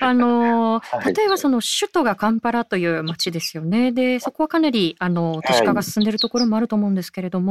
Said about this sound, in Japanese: 相変わらず鳥の声がのどかに聞こえてくるんですけれども